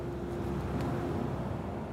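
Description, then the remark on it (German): A tractor pulling a trailer rumbles steadily past in the village centre of Törwang, Samerberg, in the Rosenheim district of Upper Bavaria, its deep engine drone and low rattling filling the whole moment at an even, fairly loud level, with no voices. “Ich sitze in der Dorfmitte von Törwang, hinter mir das Gasthaus und Hotel zur Post, ein Traktor mit Anhänger rumpelt vorbei”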